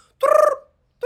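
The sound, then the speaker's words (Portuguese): A person imitates a parrot's squawk with one loud, raspy, warbling call, followed by the start of a second squawk cut off at the end. “mas não era assim, isto é um som de papagaio, não é?”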